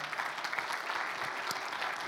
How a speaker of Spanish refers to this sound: un fuerte aplauso al Señor en esta hora.